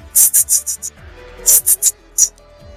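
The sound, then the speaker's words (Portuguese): A voice imitates a hi-hat cymbal with sharp, breathy 'tss' bursts: a quick run of five that fade away like an echo, then four more and a final lone hit. “você ouve aquela parte que o chimbalzinho entra, né? Que a bateria começa a entrar e ele faz.”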